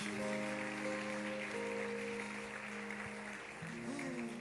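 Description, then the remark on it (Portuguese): An audience applauds the Lord in a steady, dense wash of clapping that continues without a break, mixed with sustained keyboard chords that change pitch a few times underneath. No one speaks. “Aplauda ao Senhor, gente.”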